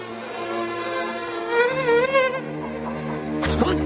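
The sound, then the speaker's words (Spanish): A fly buzzes in a steady, droning hum whose pitch wavers up and down as it moves around, among chickens, followed near the end by a brief sharp rustle or swat as a man with a briefcase shoos it away. “Se detiene ante Paco y Fátima y espanta una mosca.”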